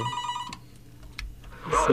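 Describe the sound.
A telephone rings once in a short electronic burst, fairly loud, after a number is dialed to call a listener on a radio show, then cuts off into quieter background sounds and brief voice-like noise.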